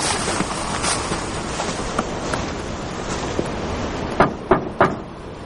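Three quick, sharp knocks on the wooden door of a house, fairly loud, come near the end over a steady, rumbling background noise, as a man who has walked along a path through the snow knocks. Nobody speaks.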